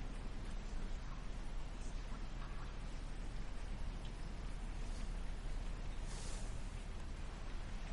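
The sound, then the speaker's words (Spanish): Steady rain falls continuously at night, a dense, even hiss with a low rumble underneath, unbroken for the whole stretch. Nobody speaks. “Bruce sigue descansando sobre la cama con la lluvia de fondo”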